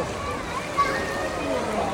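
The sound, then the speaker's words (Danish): Busy, steady wash of splashing water at a water park, with children's voices chattering and calling throughout, a lively crowded ambience with no single voice standing out. “Nå, men den store ting, eller det, der jo også fylder mest, det er deres vandland.”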